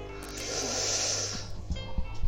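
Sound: motorcycle passing by outside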